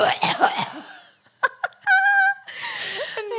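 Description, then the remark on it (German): Someone laughs hard, then chokes into a couple of short, sharp coughs, followed by a strained high-pitched vocal squeak and more breathy, wheezing laughter. “Und nee, sich dann noch beim, beim Lachen verschluckt.”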